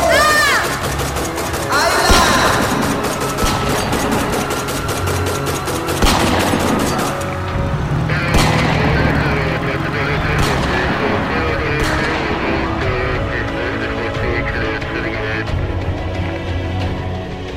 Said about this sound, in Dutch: Regisseur schiet terug, maar het mocht niet baten.